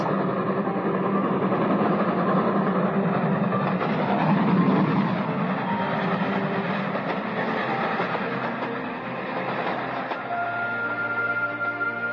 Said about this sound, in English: And they heard the roaring thunder of a third brilliantly lighted express.